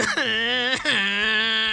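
A voice imitates crying with two drawn-out, wavering whimpers, the second sliding down in pitch. It is fairly loud, with no other talking.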